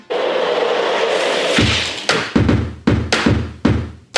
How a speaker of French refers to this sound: Là, il a composé un morceau rien qu'avec des bruits de chaises, fauteuils et canapés qu'il a chez lui, en tapant dessus, en les faisant bouger, en les traînant ou en les faisant grincer.